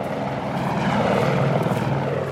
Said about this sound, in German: Ein Hubschrauber flog den ganzen Tag im Pendelflug Beton auf den Berg, damit man Fundamentierungen verstärken konnte.